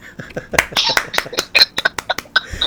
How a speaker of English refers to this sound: Now you just gotta clap out for that.